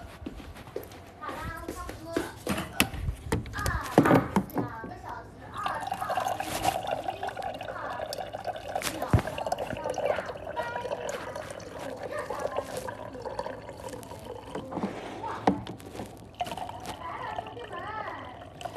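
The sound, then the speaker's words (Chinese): Water pours steadily into a cup in a continuous, gurgling stream lasting several seconds, with a sustained mid-pitched ringing tone. Brief speech and clatter come just before the pouring starts. “就那么点水，请问你就喝一口是吗？ 我去接一点，等一下。”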